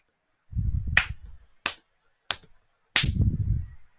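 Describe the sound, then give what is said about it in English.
A person pounds a fist into their own open palm four times at an uneven pace, each sharp smack followed by a brief low thud, with no talking. “uh, if you could hear that, I was pounding my fist into my hand because last week was it was just ter- it was just terrible to watch.”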